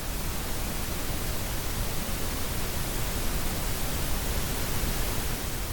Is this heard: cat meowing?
no